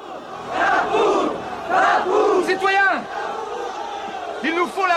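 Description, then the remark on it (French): A crowd shouting and yelling together, loud and continuous, with bursts of raised voices and rising cries over a dense roar of many people. “une place de la Bastille, noir de monde, en ce 14 juillet 1789.”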